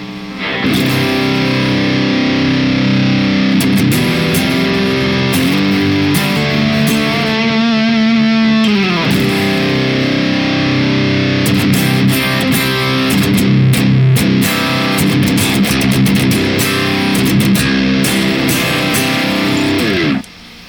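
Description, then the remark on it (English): Electric guitar played through a cheap DS1 distortion pedal, captured on a Cortex: loud, fuzzy, sustained chords and riffs ring continuously for about twenty seconds, with a sliding pitch bend midway, before cutting off abruptly. “Once again, proving you can take a $40 pedal and make it sound amazing”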